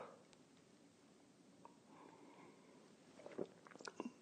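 A quiet stretch of low background noise, then a few short slurping sips of coffee from a mug and small mouth sounds near the end, with no talking.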